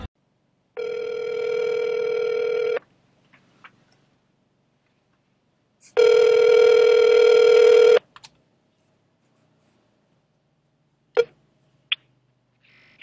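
A phone call rings twice, each long steady electronic tone lasting about two seconds with a pause between, followed by a few faint clicks as the line connects to voicemail.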